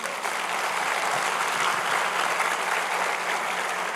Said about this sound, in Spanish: Dele un fuerte aplauso a Jesús.